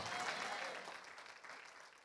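Audience applause fills the whole stretch, a dense steady patter of many hands clapping, loud at first and easing slightly toward the end, with no voices standing out.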